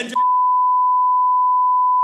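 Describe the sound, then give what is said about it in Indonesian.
A brief burst of voice cuts off into a loud, steady censor bleep covering a brand name, a single pure tone that holds unbroken for about two seconds. “kalau lo nggak kalau nggak kasih duit kita sensor.”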